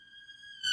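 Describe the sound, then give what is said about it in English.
A steady, high-pitched emergency vehicle siren tone with strong harmonics holds throughout, rising in loudness toward the end as the vehicles pass. No one speaks. “I'm going to I'm going to let the sirens pass.”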